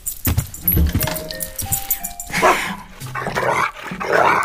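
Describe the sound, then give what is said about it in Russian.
A dog named Altai barks several times in quick, uneven bursts, mixed with rustling and jingling like keys, as if greeting someone at the door. “А это голос подает мой пес Алтай.”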